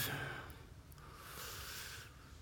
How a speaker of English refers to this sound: We take this practice of breathing three times together on our own and as one. We'll be patient. If you breathe slowly, be patient if you breathe fast. Let's do the work together.